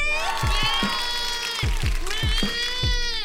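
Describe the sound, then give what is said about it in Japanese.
A loud, excited crowd cheers and shouts continuously at the venue of a final match that is about to begin, with sustained raised voices and repeated low thumps running underneath throughout. “会場の様子はいかがですかはい大変な盛り上がりを見せていますみんな応援してね”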